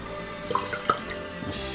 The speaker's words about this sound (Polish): Polej pan. Polej. No, woda, woda.